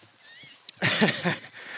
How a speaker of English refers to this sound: That's the sound of a guy on my right blowing his nose pretty hard into his top, which is uh, well, it's going to need to be on a sports wash later on, I hope.